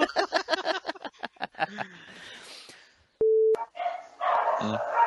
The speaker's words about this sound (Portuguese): quando o cachorro tiver ah, latido.